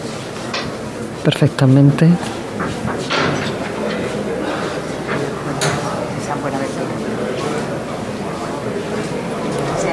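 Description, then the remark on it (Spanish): Huge heavy wooden church door shutters, previously firmly shut, are turned open with some effort, grinding and creaking in a short burst of scraping and thuds, while people talk over a steady crowd murmur. “Están girando esos postigos enormes que tiene parece que está costando un poquito.”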